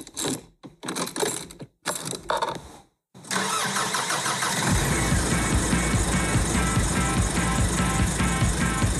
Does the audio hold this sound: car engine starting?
yes